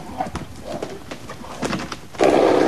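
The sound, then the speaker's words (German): A stallion gives short whinnying calls and huffs, then lets out a loud, sustained breathy snort at the end, with no voices. “Und zwar Viren und Schnauben von Pferden.”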